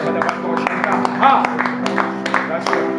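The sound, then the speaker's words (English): A church audience claps their hands as a clap offering to Jesus, a steady stream of overlapping claps mixed with sustained, reverberant voices or shouting. “If you believe, if you believe that, put your hands together. Give a clap offering to Jesus.”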